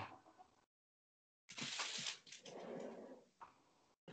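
A female dog barks a few times from outside, wanting to be let back in, the sound somewhat muffled and broken up by brief moments of dead silence between bursts.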